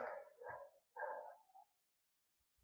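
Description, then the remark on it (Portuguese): Dogs at a house bark in the small hours of the night in a short series of drawn-out, somewhat quiet barks, with two longer calls followed by a brief pause and another bark starting at the end. No one speaks. “Não sei se vocês estão escutando, mano, mas se estiver escutando, os cachorros estão latindo muito.”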